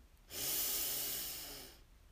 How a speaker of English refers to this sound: We hold, and then we exhale with a loud sigh to let any stale air out of our lungs. So, breathing in and out. Ah. Breathing in and out. Breathing in